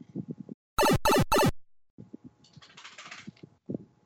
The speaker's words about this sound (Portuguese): Não, é balançando a cabeça. Isso é barulho de cachorro se chacoalhetando